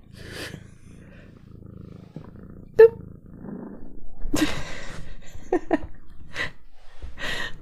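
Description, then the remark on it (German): A cat purrs steadily while rubbing its body against the microphone wanting to cuddle, a low rumbling drone with rhythmic pulses, joined by a sharp click and some rustling, while people talk. “Ja, doch, sie, sie schnurrt ja schon.”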